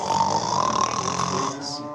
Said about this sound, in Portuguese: Ele tá roncando muito. Não, mas assim. Muito.